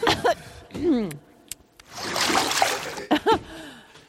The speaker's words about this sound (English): They're spitting toilet water back and forth.